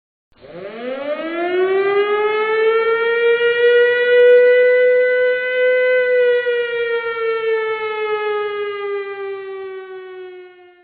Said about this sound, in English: Give me the siren.